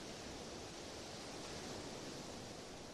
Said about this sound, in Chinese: 片刻之后，你闭上双眼，倾听着海浪拍打海岸的声音。一波波海浪涌来又退去，生生不息。海浪有节奏地拍打海滩的声音，让你陷入美好的安静平和。